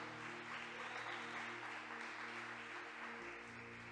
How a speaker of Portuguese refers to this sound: Será que você pode aplaudir o Senhor aí na sua casa? Será que você pode aplaudir o Senhor?